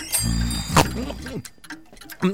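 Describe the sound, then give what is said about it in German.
A clock ticks in a watchmaker's shop with sharp, fairly evenly spaced, clear clicks over a low humming tone and some murmuring voice-like sounds. “Uhrmacher Heliogabalus von Goldfinger. Wir wissen, wie Sie ticken.”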